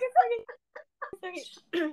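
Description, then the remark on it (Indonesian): A bird chirps in a quick series of short, bright calls, some clipped and some slightly drawn out, with brief pauses between bursts. “tuh burung muncul di podcast kita ya”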